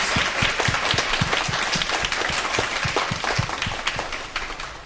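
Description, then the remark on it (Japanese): An audience at a church worship service applauds the Lord in a dense, steady wash of many hands clapping, loud and continuous for about five seconds with no talking over it. “感謝します主に栄光を返しましょう大きな拍手を主に捧げたと思いますハレルヤ”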